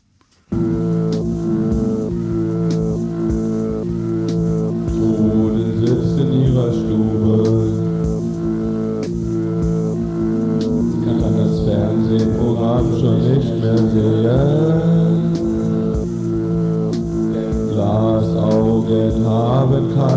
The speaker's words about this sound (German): Und jedenfalls ist hier in der Strophe ein Elf-Achtel-Takt, vom Drumcomputer. Wir hatten diese 606, das berühmte Roland-Ding.